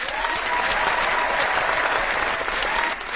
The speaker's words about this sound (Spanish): Si has aguantado hasta aquí, te mereces el sonido de aplausos, por favor.